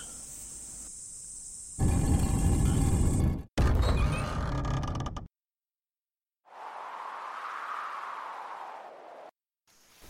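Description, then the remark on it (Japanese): A door creaks slowly open in a drawn-out, wavering groan lasting a few seconds, heard alone after a burst of rough, noisy rumbling and a brief silence. “さあ、着いたわい。この扉の向こうじゃ。”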